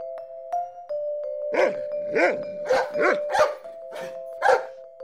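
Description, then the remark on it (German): An office dog lets out a series of about six short barks in an uneven rhythm, over a steady high-pitched tone that hums underneath the whole time. “Das ist Bürohund, ganz brav und er wartet, bis wir wieder Zeit haben, um ein bisschen rauszugehen und danach können wir weiter beruhigt beide arbeiten und ein bisschen schlafen.”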